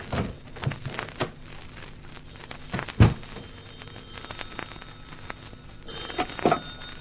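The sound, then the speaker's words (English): A telephone bell rings briefly inside a penthouse near the end, a short metallic trill, preceded by scattered knocks and clatter like footsteps and the penthouse door being opened in a hurry. “I could hear the phone ringing inside, and I opened the door in a hurry.”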